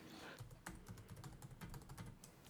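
Rapid clicking of computer keys as someone types a web search for a pasta ladle ("Nudelkelle"), a quick irregular run of taps with no voices, fairly quiet overall.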